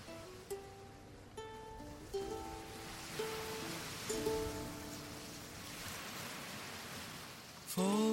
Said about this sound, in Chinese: 那接下来我们会听到一个前奏也带着海浪声，还有吉他声的一首清新的小歌。